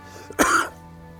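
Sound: coughing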